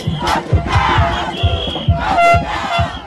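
A large crowd of thousands of football supporters at the Coupe d'Afrique des quartiers in Mantes-la-Jolie, Yvelines, chants and cheers loudly, with rhythmic drum-like beats pounding underneath and shrill horn or whistle blasts cutting through the roar.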